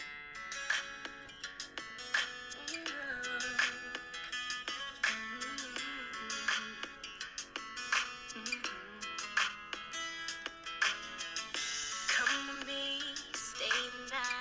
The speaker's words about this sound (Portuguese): Esta música é de 2006, …, e chama-se …. Vamos lá ouvir.